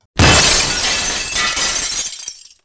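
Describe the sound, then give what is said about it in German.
Window glass shatters loudly in one sudden crash, followed by a brief tinkle of falling shards that trails off within about two seconds. No voices. “und nach diesem wilden Durcheinander stürzten sie durch das Fenster in die Stube hinein, dass die Scheiben klirrten.”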